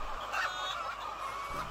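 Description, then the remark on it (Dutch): A dense, steady chorus of many chickens clucking and murmuring together at a Gelderland poultry farm with 100,000 chickens, the Van Ramshorst poultry business in Nijkerk, like a crowded poultry barn, holding an even loudness throughout with no voices. “Een pluimveehouderij met 100.000 kippen.”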